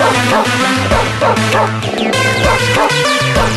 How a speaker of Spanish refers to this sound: Ah, esto no es animalero. No oyes los ladridos.